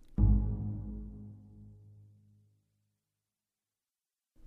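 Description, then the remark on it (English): A double bass plucks a single low pizzicato, two notes an octave apart sounding together: the root of a G-sharp minor triad, ending a piece. It rings out and fades over about two seconds before silence. “the double bass pizzicatos. And those are playing um, just two notes, an octave apart”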